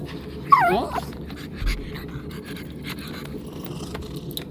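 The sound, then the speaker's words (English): A pet dog named Ruby whimpers in a short, high, wavering whine early on, followed by quieter snuffling and faint movement against a low background hum. “the pet dog likes them both, they know they can trust each other because dog people are crazy.”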